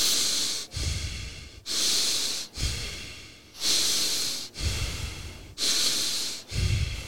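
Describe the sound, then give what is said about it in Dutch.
Deep, fast Wim Hof method breathing in a steady cycle: about seven forceful inhale–exhale pairs with rushing, hissy airflow, each breath loud and continuous with no pauses between them, and no talking. “Ja, ik doe wel diep en snel.”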